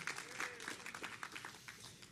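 An audience at a church service applauds together for God (Jehová), a dense and steady wash of many hands clapping at moderate volume for about two seconds, with faint voices calling out underneath.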